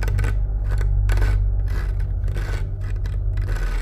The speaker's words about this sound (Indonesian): Dan di saat yang bersamaan pun gue denger ada suara kasur gue dicakar-cakar dari belakang kepala gue.